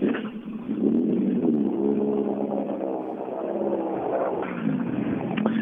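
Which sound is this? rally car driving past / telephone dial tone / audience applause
rally car driving past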